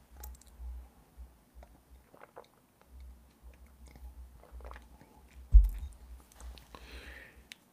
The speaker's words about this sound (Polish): Trzy łyki wody z miedzianego kubka i tak jak się umówiliśmy, jeśli mają Państwo jakieś picie koło siebie, to proszę też spróbować razem ze mną trzy łyki.